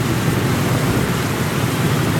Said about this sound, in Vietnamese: chuyện xảy ra trong một đêm mưa tầm tã trời đất quý thần ơi mưa gì mà lớn dữ táp táp hết vô mặt không thấy đường à, không thấy đường mà đi nữa rồi cuối mùa rồi mà sao mưa còn lớn dữ vậy ta à, à, à.